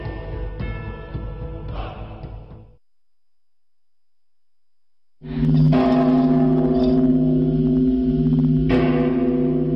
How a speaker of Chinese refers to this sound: 晨光出现，伴随着清脆悠扬的钟声，少林武僧来到演武场，开始一天的习武生活。